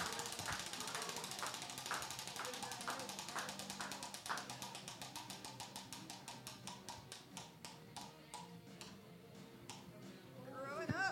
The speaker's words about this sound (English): Spin that wheel.